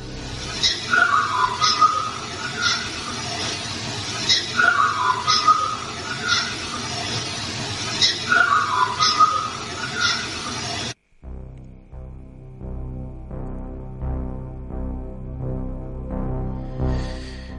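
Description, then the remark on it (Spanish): A faint, wavering whistle repeats about three times at a steady interval over heavy hiss, like an old recording. The noise cuts out and a quieter, low tonal background follows. “el siguiente audio no es precisamente una voz, no es precisamente un dato, no es precisamente una palabra, un silbido, Un silbido, Jorge.”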